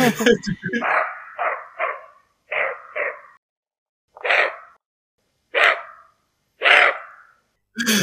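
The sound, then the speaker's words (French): A deer barks again and again through the night, about nine hoarse, abrupt calls, quick pairs at first and then single barks spaced a second or more apart, fairly loud with silence between. “Alors moi, c'est euh, les aboiements des biches, des cerfs.”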